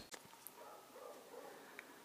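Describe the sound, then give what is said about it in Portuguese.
Dogs bark faintly outside, muffled, with a few short yelps over a steady low background hum. “Muito barulho, cães latindo, trânsito lá fora.”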